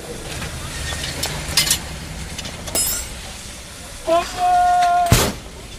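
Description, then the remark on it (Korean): A Korean ppeongtwigi rice puffing machine, with rice placed in its container and puffed under pressure, rattles and clanks over a steady mechanical rumble, then a thin whistle sounds briefly before one sharp, loud burst near the end. “용기에다가 쌀을 집어넣고요. 압력을 가해서 튀길 겁니다. 네, 뻥튀기요.”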